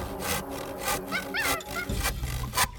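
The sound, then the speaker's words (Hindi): A hand saw, picked up by a monkey, scrapes back and forth across a half-sawn wooden log in repeated rough strokes, making a 'kir kir' sound, fairly loud, with a faint chirping in the background between strokes. “उसकी नजर अधचिरे लट्ठे पर पड़ी बस वह उसी पर पिल पड़ा और बीच में अड़ाए गए कीले को देखने लगा फिर उसने पास पड़ी आरी को देखा उसे उठाकर लकड़ी पर रगड़ने लगा”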